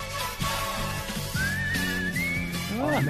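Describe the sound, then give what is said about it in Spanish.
A bright whistled melody, the whistled-only theme tune of a TV show, carries a cheerful tune over steady rhythmic backing music, with sliding pitches and trills, at a clear, even volume. “tenía una sintonía solo silbada.”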